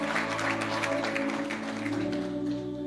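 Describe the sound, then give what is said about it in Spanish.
An audience at New Life Church applauds to God steadily for a few seconds, the clapping dense and continuous over a sustained organ or keyboard chord humming underneath. “denle un fuerte aplauso a Dios si usted cree y usted desea eso.”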